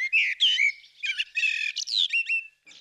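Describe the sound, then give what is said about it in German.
A bird sings in a quick run of varied phrases, fluting whistles mixed with higher twittering notes, clear and fairly loud with no one talking, like a common blackbird singing. “Die Amsel”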